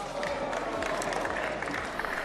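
A dense murmur of many voices of members of the European Parliament, steady and continuous, with scattered clapping and indistinct chatter rising and falling, after the vote removing Eva Kaili as vice-president, announced by President Roberta Metsola.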